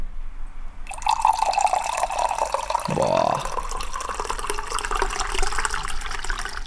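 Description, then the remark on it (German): Tea pours steadily into a huge mug of about 0.7 litres, a bright splashing stream that deepens in pitch as the mug fills, with a brief exclamation from a person near the start. “Da wird mir direkt so ein bisschen wärmer von innen, wenn ich Tee plätschern höre.”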